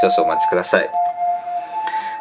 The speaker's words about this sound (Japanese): めちゃくちゃ救急車なってるすごい真面目な話してる救急車なってるごめんなさい